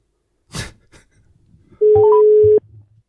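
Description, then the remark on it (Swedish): A short clatter, then a steady electronic telephone tone lasting under a second with a few quick higher beeps stepping over it, like a call to the boat firm Mojo Boats being dialed and ringing out. No one speaks. “Prova att ringa honom får vi se.”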